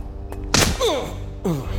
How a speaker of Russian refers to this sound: ты в два шага оказался передо мной и ударил под дых.